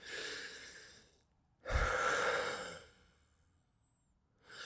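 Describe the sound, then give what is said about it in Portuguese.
Labored wheezing breaths from a person's chest, two long airy pushes and the start of a third, rasping in and out like an air-mattress pump with short silent gaps between them. “Parece que eu tenho uma bomba de encher colchões da Decathlon dentro do meu, do meu peito.”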